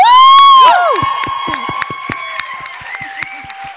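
A crowd bursts into applause with loud cheering and whoops, a high shout ringing out at the start, then steady clapping continues with scattered claps standing out as the noise gradually eases.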